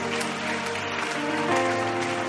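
An audience claps steadily as a clap offering, a dense, sustained burst of applause, with sustained musical tones running underneath and no break in the noise throughout.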